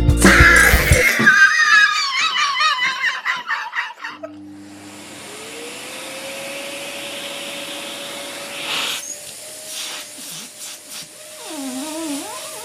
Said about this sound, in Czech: pitomý vysavač, pitomé Vánoce, ty vole.